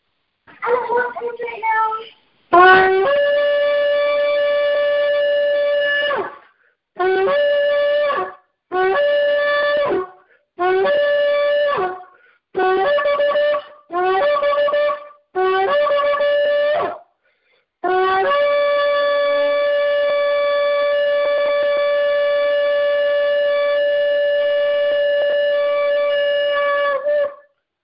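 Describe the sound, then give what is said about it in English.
A shofar (ram's horn) is blown loudly during a prayer service: one long, steady blast, then seven short blasts in quick succession, and finally a long, sustained note held for about ten seconds. “Sound the shofar”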